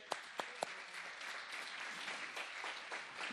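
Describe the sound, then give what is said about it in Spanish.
An audience claps for the Lord during a church sermon, a few sharp early claps swelling into steady, dense applause of many hands that continues evenly throughout, with no voices standing out. “Dele palmas al Señor.”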